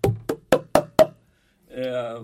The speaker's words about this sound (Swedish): satt och applåderade och gjorde så här.